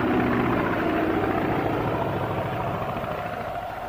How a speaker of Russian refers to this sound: Я видел первый самолет, который пролетел над Красной площадью в день первой годовщины Октябрьской революции.